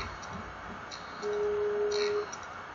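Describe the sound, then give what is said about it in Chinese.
A phone rings with a single steady, mid-pitched electronic tone lasting about a second, clearly standing out over faint background noise, with no talking. “来个电话，不好意思，先挂断啊。”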